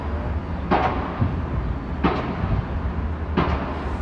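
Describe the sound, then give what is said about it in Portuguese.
Construction work noise from a huge building project under way: a steady low rumble of machinery with three sharp, loud bangs at a slow, roughly even pace, and no voices. “É uma obra gigante que tá rolando ali.”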